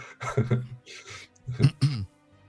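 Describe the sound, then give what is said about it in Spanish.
Two bouts of coughing and throat clearing, each a quick pair of rough, voiced bursts, separated by a brief pause, with no talking. “Te estoy mm. pegando lo, de la tos, ¿no?”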